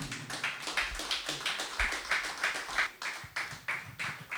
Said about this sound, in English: Some of you are still clapping. We're going to make you continue.